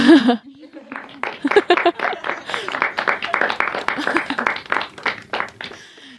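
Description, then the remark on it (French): A short applause jingle sound effect played on a lycée's student-run radio: a brief voice, then a dense burst of many hands clapping at a steady loudness for about five seconds before fading out. “vous pouvez lancer le petit, le petit jingle des applaudissements parce que merci.”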